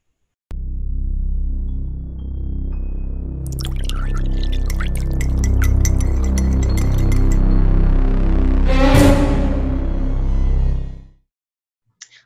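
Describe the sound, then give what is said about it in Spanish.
Glasses clink lightly several times over a steady low ambient hum, followed by a short burst of liquid being poured; no one speaks. “Así que destapen sus cervezas, prepárense sus cafés o sírvense una copa de vino y acompáñenos en este episodio de Creepy Café.”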